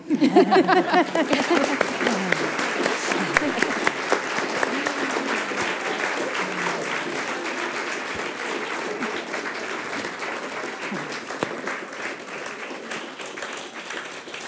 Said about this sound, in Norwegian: Da syns jeg den applausen egentlig talte for seg.